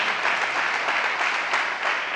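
An audience breaks into steady, sustained applause, a dense wash of many hands clapping at an even, fairly loud level throughout, with no voices standing out.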